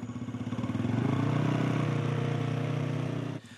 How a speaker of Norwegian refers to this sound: Han tar noen runder med en lett motorsykkel for å vise fram oppfinnelsen.